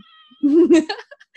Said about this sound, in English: Oh my God, that's my cat.